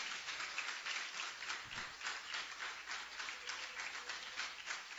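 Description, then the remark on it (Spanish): A church audience breaks into sustained, loud applause for the Lord, dense clapping filling the whole stretch in an even, continuous roar with no one speaking over it. “Dale un aplauso fuerte al Señor en esta hora si puede.”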